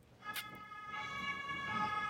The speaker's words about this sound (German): Glauben Sie, da kommt jetzt der Rettungswagen, um mich abzuholen? Nee, das ist die Polizei wegen deinem äh, sexuellen Belästigung.